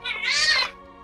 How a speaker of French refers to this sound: Oh, mon dieu, c'est un chat. Ça. Le, chat, la niaiseuse s'est mise en dessous de ma chaise.